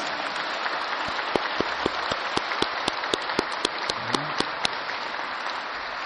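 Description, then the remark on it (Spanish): A crowd applauds the mothers present, a dense wash of many hands clapping with sharper individual claps popping out in a quick, uneven rhythm over about six seconds. “Dale fuerte el aplauso a las mamás.”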